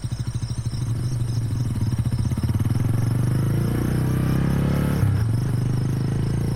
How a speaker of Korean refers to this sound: 손을 흔들던 우편 배달부는 빨간색 헬멧을 고쳐 쓰고 아홉 모랑이로 오토바이를 몰고 간다.